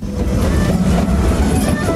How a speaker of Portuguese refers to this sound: E agora, embarque neste trem na estação Tóquio.